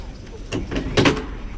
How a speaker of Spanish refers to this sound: Se abre la puerta de Toriles.